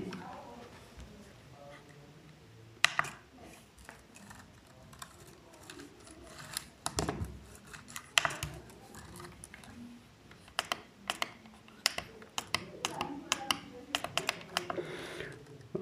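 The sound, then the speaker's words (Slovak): Crisp clicking from a braille display's own keys and pins, arriving in irregular bursts of sharp taps and rattles that grow busier toward the end, over a quiet background. “No a teraz si skúsime vypočuť, ako samotný riadok znie.”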